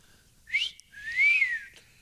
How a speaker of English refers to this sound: Here's the whistling demo.